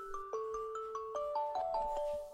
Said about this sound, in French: À tâtons, je cherche mon téléphone du bout des doigts éteindre le réveil, ouvrir un œil péniblement.